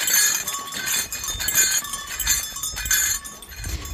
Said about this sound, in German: Die Schwertbrecher und Burgteifel haben ihre historischen Gewänder bereits an. Einer trägt Tierfell und laute Glocken.